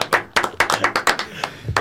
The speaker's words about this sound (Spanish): Ahora, eh, eh, pueden, un aplauso